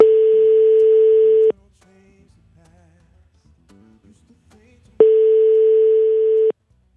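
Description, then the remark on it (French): A telephone ringback tone sounds twice during a call from the TSF Jazz radio station in Paris to a musician in California, each steady buzzing ring lasting about a second and a half, separated by a long quiet pause with only faint murmurs, as if waiting for someone to answer. “…, on lui a passé un coup de fil hier soir pour recueillir son témoignage.”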